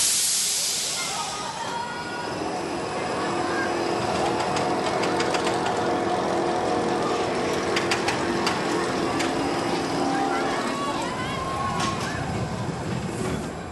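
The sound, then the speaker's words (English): A roller coaster car on a steel track lurches forward with a short burst of hissing air as riders sit with safety bars pulled in, then rolls on with a steady mechanical rumble and scattered, irregular ratcheting clicks, with no voices. “You clamber into the car as your initial thrill seekers pile in, pull in the safety bar, and give a thumbs up to the ride operator.”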